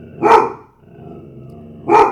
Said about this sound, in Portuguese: Pronto, agora é a minha cadela.